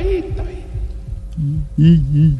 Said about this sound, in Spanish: ¿Qué? ¿Qué? El eco.